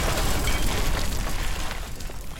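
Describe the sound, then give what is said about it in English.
A loud explosion of wired charges set around a door, set off by pressing two buttons on a small box: a dense, roaring blast with heavy low rumble and crackling debris that holds steady for a couple of seconds, with no voices. “She pressed two buttons on the box in sequence, and an explosion erupted around the door.”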